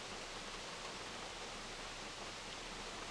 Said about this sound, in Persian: یکی از خصوصیت های بارز آبشارها اون خروش عجیب و قویه که دارن